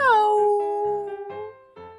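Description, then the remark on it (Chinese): A single drawn-out meow voiced by a person imitating a cat while telling a children's story, starting with a high falling glide and settling into a long steady tone, followed by a few softer vocal sounds. “我想要去养养一只猫咪好了，喵。”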